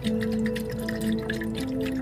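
Water trickles and pours steadily into a container, a continuous liquid stream with a hollow tone that rises slightly near the end, with no voices.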